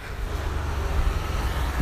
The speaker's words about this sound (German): dieser Roller fuhr gerade vorbei